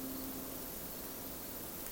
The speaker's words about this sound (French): Il m'a invité dans son rucher, à Buis-les-Baronnies, pour écouter le ballet de ses abeilles, avec qui il vit et travaille depuis 20 ans.